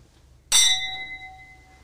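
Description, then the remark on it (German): A single bright clink of glasses touching in a toast, clear, with a clean ringing tone that lingers and slowly fades over a quiet background. “Hi, das war aber ein schönes Pling, oder?”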